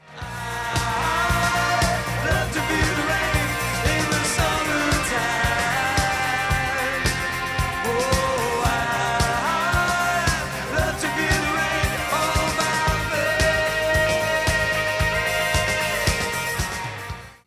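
A rock song plays steadily at full volume for the whole stretch, with a dense band sound, sustained melodic lines and a driving low end, and no talking over it.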